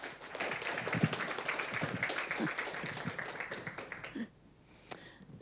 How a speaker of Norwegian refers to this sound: Så da syns jeg vi bare skal gi henne en varm applaus.